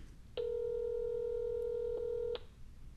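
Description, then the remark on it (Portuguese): A single steady telephone keypad tone holds for about two seconds, loud, then cuts off as a phone call is placed, leaving only faint background hiss. No one speaks. “Vamos fazer a ligação agora.”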